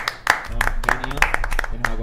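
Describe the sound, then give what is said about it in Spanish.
A short burst of applause for three members of a live broadcast's production team: scattered, uneven hand claps from a small group, with voices talking and murmuring underneath throughout. “Así que un aplauso para ellos tres.”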